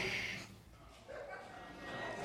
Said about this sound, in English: she just got booed. Whoa. Dudes over here are ice cold. Like she was a dirty Seattleite.